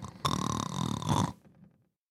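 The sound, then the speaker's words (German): A single drawn-out snore imitated by a human voice, loud, with a raspy buzzing tone that cuts off after about a second and trails into a faint rumble. “Werner lässt den schnarchenden Spencer zurück.”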